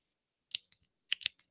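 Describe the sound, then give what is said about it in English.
A retractable pen clicks several times in quick, irregular bursts: sharp, dry snaps with brief pauses between them and silence around them. “I'm always I'm always clicking a pin.”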